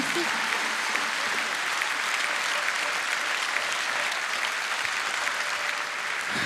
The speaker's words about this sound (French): on peut l'applaudir.